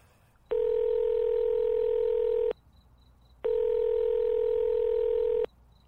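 Two long, steady telephone ringback tones on an outgoing call made from home, each about two seconds with a pause between, clear with no one speaking.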